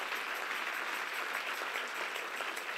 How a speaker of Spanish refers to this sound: Vamos, que si ese es el aplauso para el Señor, es que te tengo que decir.